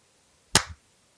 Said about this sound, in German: Habe ich jetzt gedrückt und jetzt klatsche ich nochmal, ja?